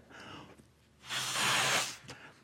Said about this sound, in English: But if I keep making the balloon bigger, this will all end well.